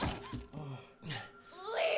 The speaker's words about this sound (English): She's smashing her head up against the wall.